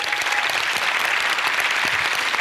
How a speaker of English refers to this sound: That's what our production and media crews do. And we're so thankful for them. Can we give them a round of applause just really quick?